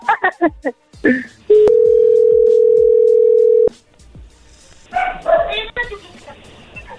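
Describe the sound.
After a few sharp barking sounds, a dropped phone call gives way to a loud, steady, single-pitched dial tone that holds for about two seconds and cuts off abruptly, followed by someone talking.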